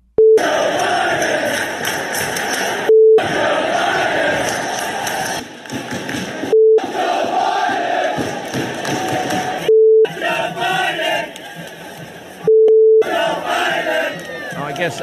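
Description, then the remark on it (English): A huge stadium crowd chants an obscene slogan against Joe Biden loudly in unison, the roaring chant repeating again and again, cut at regular intervals by short electronic bleeps that censor parts of it. “this was happening in stadiums all across the, the country this weekend. Listen, just this is just stadiums. F. Joe Biden.”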